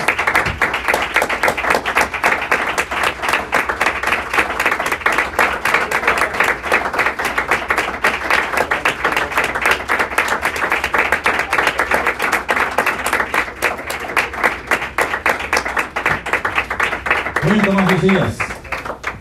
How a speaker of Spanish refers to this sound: Gracias le damos. Le damos un aplauso al Señor Jesús, hermano.